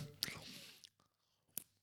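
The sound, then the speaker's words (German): Quiet chewing of a crunchy snack that also sticks to the teeth: a few sharp crisp crunches spaced irregularly, with soft wet mouth sounds and brief silences between them. “Und vor allem, das knuspert nicht nur, sondern das klebt dann auch noch so an deinen Zähnen und dann mhm.”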